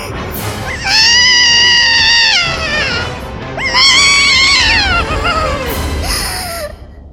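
Two loud, sustained wailing cries, the first steady and the second rising and wavering, sounding like an anguished scream close by over a low background rumble, with no speech.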